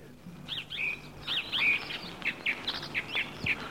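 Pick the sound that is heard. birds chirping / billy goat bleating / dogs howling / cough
birds chirping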